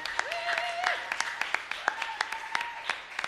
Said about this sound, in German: Lass uns den Erstgästen einen kräftigen Applaus geben.